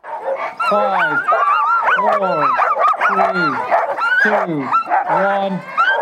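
A sled dog team barks and yips excitedly as its musher sets off in the Yukon Quest sled dog race, overlapping calls with rising whines filling the whole stretch, loud, with no pauses between the eager cries.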